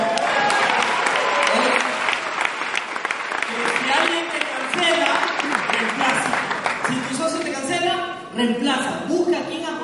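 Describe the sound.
A crowd breaks into sustained, loud applause for the company's new 'diamond' member, dense clapping that holds steady for about ten seconds, with some voices and cheers mixed into the noise.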